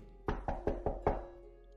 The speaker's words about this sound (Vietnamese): Tiếng gõ cửa lại vang lên